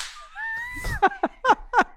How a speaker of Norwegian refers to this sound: så skal jeg liksom slå han litt sånn vennskapelig på låret. Men det er jo shortsvær, det er sommer, så det blir rett og slett et klask.